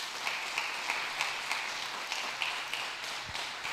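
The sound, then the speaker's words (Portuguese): A church audience applauding God together, a steady wash of many hands clapping, with occasional sharper individual claps standing out; no voices are heard over it. “Aplauda Ele se você crê nisso.”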